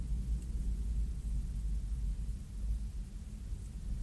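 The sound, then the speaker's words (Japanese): A deep, steady rumble of a heavy tank driving past next door fills the whole stretch, low and droning with a slight churning texture and no voices over it. “今隣はあの戦車が戦車がねこう走ってこう行ってくれましたのでね”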